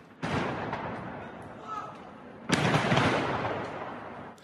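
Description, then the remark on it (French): Two loud explosions from a fireworks stockpile near homes in the Cronenbourg district of Strasbourg, France, as it explodes and catches fire, each bursting abruptly and trailing into a sustained crackling roar, with the second blast arriving a couple of seconds after the first. “Une réserve de feux d'artifice a explosé et pris feu proche des habitations.”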